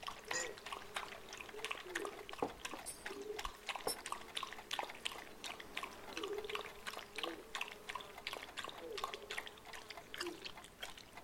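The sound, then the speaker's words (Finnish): Coffee pours steadily into a cup in the morning, a soft continuous trickle with small splashing pulses running for about eleven seconds, fairly quiet. “Unohdin kaataa sinulle kahvia.”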